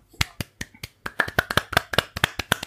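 A brief burst of applause: sharp, crisp hand claps in a steady rhythm, starting sparse and quickly growing quicker and fuller, about fourteen claps in under three seconds, with no voices.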